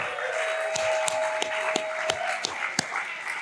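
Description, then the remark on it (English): Audience applause at an event hosted by Hales Palladium: a steady, hissy wash of many hands clapping, with several sharper individual claps popping out at irregular intervals and a faint constant tone underneath. “Give yourselves an applause too.”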